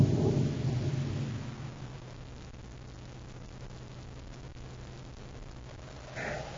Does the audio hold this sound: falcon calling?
no